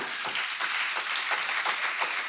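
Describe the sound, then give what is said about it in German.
Steady audience applause for the event's venues in Freising, Augsburg and Passau and for viewers at home, a dense wash of many hands clapping at an even level, with no voices over it, lasting a couple of seconds. “Lass uns mal den Locations Applaus geben und auch zu Hause Leuten Applaus geben.”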